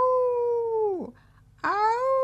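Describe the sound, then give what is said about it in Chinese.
A voice imitates the howling cry of a black-eared female fox sitting on a roof ridge: two long, loud wails with a short pause between them. The first holds steady and then drops in pitch; the second rises sharply before leveling off. “黑耳朵母狐狸仍然坐在屋脊上，幽怨的朝我笑叫。”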